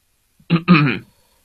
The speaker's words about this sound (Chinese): 他清了清嗓子说